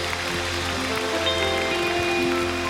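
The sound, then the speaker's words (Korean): An audience at a church worship service applauds in praise to God in a steady, dense wash of clapping that holds an even loudness throughout, with sustained keyboard or organ chords droning underneath. “하나님께 감사의 영광의 박수 올려드릴까요?”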